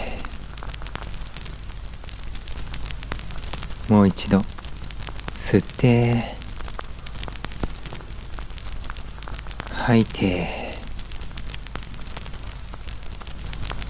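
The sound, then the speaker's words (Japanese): Burning firewood in a campfire crackles steadily throughout, with a constant soft hiss and frequent small pops and snaps. A calm voice guiding a meditation speaks briefly a few times over the fire. “燃える炎とパチパチ弾ける焚き木の音に耳を傾けながら”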